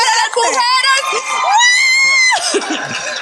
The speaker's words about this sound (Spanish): un aplauso